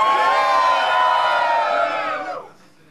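A loud crowd at the Future of Rap battle event cheers and shouts together in a dense, sustained roar with high-pitched whoops, holding steady for over two seconds before dropping off sharply.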